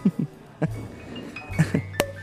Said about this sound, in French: Vous aimez le champagne, comtesse Ah, James, le bouchon a pété si fort